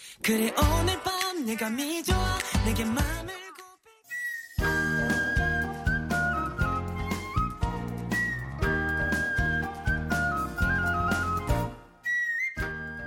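A loud, full-band pop song with a gliding melodic line at first, a brief drop near four seconds, then a steady beat and bright high whistle-like synth notes.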